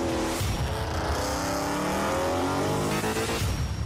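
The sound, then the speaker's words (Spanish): A brand-new Hyundai HB20 drives around the city with its engine revving steadily and tires squealing, a loud, continuous sound that fills the whole few seconds without any voices. “Ya anda dando vueltas por la ciudad un Hyundai HB20 nuevecito de paquete, sin una patinada de mosca, liso”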